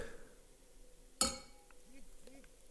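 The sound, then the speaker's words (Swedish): A single bright clink of drinking glasses touching in a toast, sharp, with a short ringing tail that fades over a moment while faint voices murmur in the background. “Så ja, skål, verkligen. skål på dig. Ching chong. Skål på dig.”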